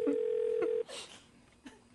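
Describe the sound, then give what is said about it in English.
A phone line tone hums steadily for just under a second as a call rings through to Sean Hannity's phone, then cuts off into faint hiss and a soft click on the line. “Y'all, y'all realize we're just calling Sean Hannity's phone”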